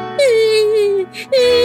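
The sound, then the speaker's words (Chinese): A voice imitates a young deer crying: a long, steady, whimpering wail that dips slightly in pitch, a brief breathy pause, then a second wail begins, loud and mid-pitched. “他慢慢的往下爬，听见了小鹿的哭声，”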